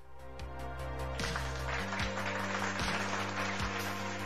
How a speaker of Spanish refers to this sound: Aplausos, por favor. ¿Dónde están los aplausos?